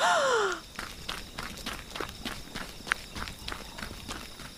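A short gasping, falling breath gives way to quick running footsteps of someone running off to save an egg, a dozen or so brisk steps in a steady, hurried rhythm, moderately loud with no talking.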